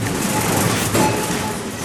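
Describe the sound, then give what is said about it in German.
A supermarket cash register sound effect: a dense, steady mechanical clatter with metallic clinks and a brief sharper jolt midway, continuing at an even loudness for about two seconds without any voices. “Eine Kasse.”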